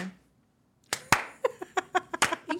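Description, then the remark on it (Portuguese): Slow hand clapping: after a brief silence, roughly ten sharp, crisp claps land in a steady, even rhythm, fairly loud and with no voices over them. “Ai, que palmas lentas.”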